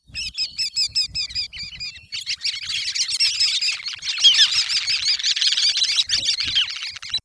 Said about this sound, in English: You can listen for a twittering series of soft, squeaky wick wick calls.